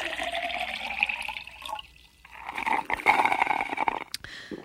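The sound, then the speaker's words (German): A thick, steady stream of urine from a woman sitting on a toilet splashes noisily into the water, pausing briefly midway before resuming with a strong, rushing gush. No voices are present. “Oh, das ist ein dicker Strahl.”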